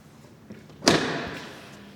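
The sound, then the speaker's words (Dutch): A single sharp mechanical clunk as the cockpit canopy of a two-seat tandem aircraft is unlatched and swung open, followed by a brief rushing, airy tail that fades over a second or so. “We openen de cockpit.”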